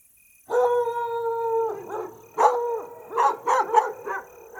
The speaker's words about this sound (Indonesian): Anjing hitam milik bapak bersarung kembali melolong.